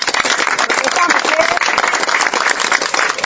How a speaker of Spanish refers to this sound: Y yo quiero recordar aquí a a mi correligionaria, que fue la creadora y fundadora de los comedores eh, populares, Violeta Correa de Belaúnde. Quiero que den un aplauso para ella.